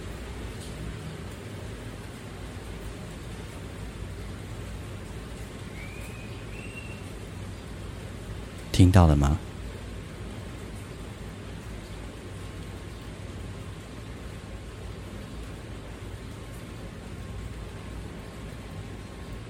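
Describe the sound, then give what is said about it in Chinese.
Light rain that is gradually easing drips from the eaves, heard from close to a terrace, as a soft, steady hiss running the whole time, with a short spoken question midway and a brief faint chirp of a myna bird just before it. “听哦，雨真的慢慢小下来了。”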